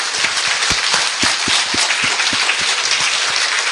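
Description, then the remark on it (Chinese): An audience applauds steadily at the end of a discussion forum, a dense wash of many hands clapping at once with a few sharper individual claps standing out. The sound stays loud and even throughout, with no voices. “哎，你们不要鼓掌，你们还有问题没有问廖伟棠，对不对？”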